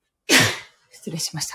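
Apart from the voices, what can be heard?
sneeze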